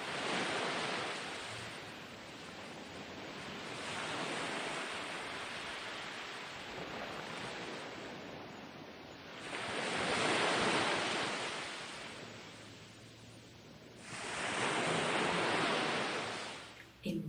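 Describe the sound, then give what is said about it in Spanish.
Ocean waves wash onto a beach in slow surges, swelling to broad, hissing crests around every few seconds and easing back between them, with no voices present. “Llevas el regalo contigo mientras te alejas poco a poco y te despides de la playa y del mar.”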